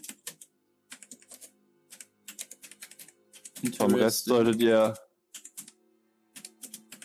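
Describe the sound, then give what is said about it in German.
Steady, rapid clatter of keys on a computer keyboard as a man nods but keeps typing, continuing throughout with brief pauses; a man's voice speaks briefly in the middle over the typing. “Er nickt, aber er tippt permanent.”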